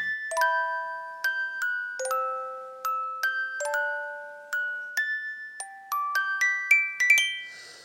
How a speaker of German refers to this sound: Guten Morgen. Es ist 5 Uhr 35. Der Wecker hat gerade geklingelt.